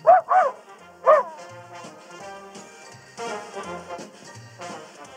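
A small dog gives three sharp, high-pitched yips in quick succession, then barks and whines more softly over a steady background of music or ambient sound.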